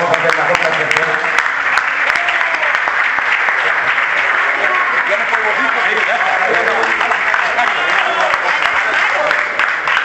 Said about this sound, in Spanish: Muchísimas gracias, un aplauso a todo el mundo